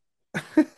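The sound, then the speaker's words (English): After a brief silence, three quick, rough coughs burst out in fast succession, each one harsh and throaty with a slightly voiced rasp. “I get to cough just listening to it.”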